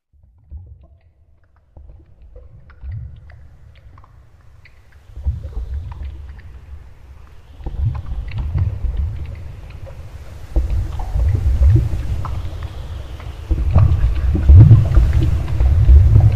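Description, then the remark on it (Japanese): A muffled, deep rushing of churning water, heard as if from inside the flow, rumbling and gurgling without pause and swelling louder in several stages. No one speaks. “その姿はスローモーションになって、二人が完全に川に入ったところで、 自分の視界は真っ暗になり、代わりに、まるで濁流の中にいるかのような音が、絶えず聞こえてきました。”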